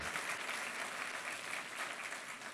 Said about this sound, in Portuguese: Dá uma salva de palmas, esse homem de Deus.